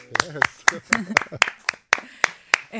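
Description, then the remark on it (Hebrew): Steady rhythmic hand clapping by an audience at a live band performance, about ten sharp claps in a regular beat, with a voice talking underneath between the claps. “אוקיי, אה, אצלנו אתם צריכים למחוא כפיים.”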